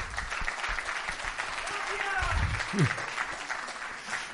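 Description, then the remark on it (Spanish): A crowd in Mallorca claps steadily and loudly for a photographer, a dense, continuous patter of many hands, with a brief voice or cheer rising out of the applause midway. “Y quiero otro aplauso, otro merecido aplauso, por favor.”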